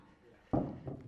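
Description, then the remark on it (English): After a near-silent stretch, keys are taken out of a pocket: a sudden muffled thump and rustle, then a second softer bump, with no clear jingle. “I'm going to get my keys out of my pocket.”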